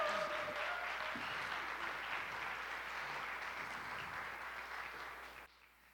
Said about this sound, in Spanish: Y gracias a Dios este, lo tenemos acá, así que el día de hoy el, primer servicio va a estar predicando. Por favor, dale un aplauso, por favor.